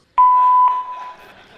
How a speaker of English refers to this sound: Play that answering machine message. I am not available right now, but I thank you for caring enough to call. I am making some changes in my life. Please leave a message after the beep.